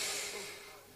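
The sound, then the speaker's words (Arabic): A voice makes a short, breathy puff, like blowing air out through the lips, imitating Jesus blowing the breath of life into a bird made of clay; a soft hissing rush that fades over about a second. “ياخذ عيسى هذا الطير إلا ما في روح هف”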